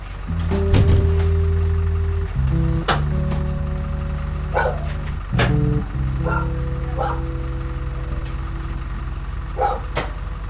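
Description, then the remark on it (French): Dogs at a dog farm in South Korea bark in scattered bursts as they are taken away from the farm, with several sharp yelps, over the loud, steady drone of an idling truck engine that runs throughout. “Dans la ferme de Monsieur Yang, alors que les chiens quittaient l'exploitation, une dizaine de poules sont restées dans leur cage.”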